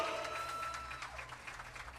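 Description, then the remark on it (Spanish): An audience at an evening show applauds and cheers in a steady, continuous wash of clapping to welcome a performer, with a few sustained whistles or shouts riding over it, without any clear speech. “El aplauso, el aplauso con la bulla, todo el mundo, todo el mundo, todo el mundo, todo el mundo.”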